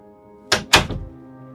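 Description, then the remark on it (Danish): A man shuts a door with a small slam: two quick thuds, the second a bit heavier, followed by a short rattling decay. It is moderately loud over a faint steady hum, with no talking. “Han lukkede døren med et lille smæk”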